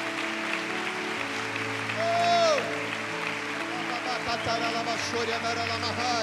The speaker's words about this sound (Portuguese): Vamos aplaudir bem alto o nome de Jesus.